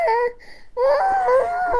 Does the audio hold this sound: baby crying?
yes